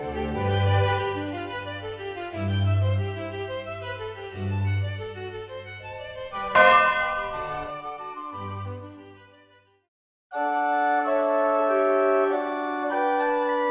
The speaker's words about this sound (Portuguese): Sinos festivos, sinos tristes, dançam, badalam entristecem. Do alto das torres das igrejas e capelas, pelas ruas e ladeiras históricas, repicam sinos, milenares sinos, tão antigos quanto a metalurgia, badalam, dançam em repiques, emitem sons